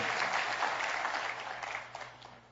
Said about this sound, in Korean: 그런 의미에서 우리 앞에 있는 우리 찬양팀, 우리 사랑하는 젊은이들 얼마나 이 찬양을 열심히 하는지 모릅니다. 우리 다음 세대까지 계속해서 잘 뛰어갈 수 있도록 우리 격려의 박수 한번 부탁드립니다.